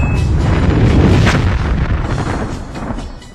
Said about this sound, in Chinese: 提醒熊孩子不要在下水井盖附近放鞭炮，容易引起沼气爆炸。